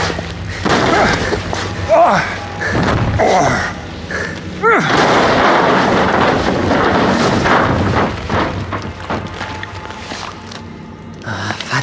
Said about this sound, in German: Brandolf Welf eine der metallenen Pritschen aus ihrer Verankerung gerissen und mit ihr als Rambock die Tür geöffnet hatte